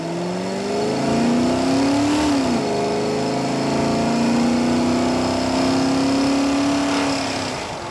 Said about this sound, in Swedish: Han tryckte bokstavligt talat gasen i botten och bilen accelererade snabbt mot den större vägen.